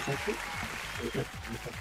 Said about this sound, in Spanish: aplauso para toda esa gente, aplauso, que se sacrificó también eh, camino a la pega, o sea, de vuelta de la pega en la micro o en el auto.